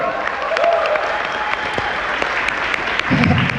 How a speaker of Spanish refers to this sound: Démelo un aplauso a esa campeona, porque esa no espera a nadie.